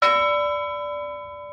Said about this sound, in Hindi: तौलिया लपेट कर हम पूजा कर ही रहे थे कि घंटी बजी मंदिर की नहीं भाई घर की डोरबेल